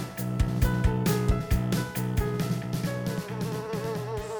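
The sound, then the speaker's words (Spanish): Several flies, of a kind that lays its eggs in the wounds of warm-blooded animals, buzz steadily, a dense droning hum with shifting pitch and occasional soft taps or bumps, continuous throughout with no voices. “Estas moscas, aunque suenen inofensivas, causaron millonarias pérdidas en el sector ganadero de Centro y Norteamérica a finales del siglo XX, al colocar sus huevecillos en las heridas de los animales de sangre caliente.”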